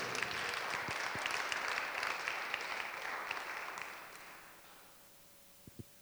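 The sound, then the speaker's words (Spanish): An audience breaks into steady, dense applause for the Lord one afternoon, holding for several seconds, then gradually fading out, leaving a couple of faint isolated taps near the end. “Dele un aplauso al Señor en esta tarde.”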